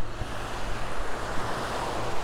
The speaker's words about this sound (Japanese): えー、夕暮れの波打ち際に来てまして、えー、すごい寒いです。もうすぐここには来れなくなるので、えー、っと、ちょっと貴重な音になってきました